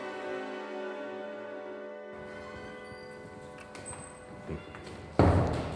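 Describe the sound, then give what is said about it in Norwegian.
A steady low hum gives way to soft irregular footsteps and a few muffled thuds, ending in a louder thump as the door to the old department of the state archive in Bergen is shut and people walk across a bridge toward its modern department. “Og nå lukket vi døren til den gamle avdelingen og går gjennom en bro og kommer inn i Bergen Statsarkivs moderne avdeling.”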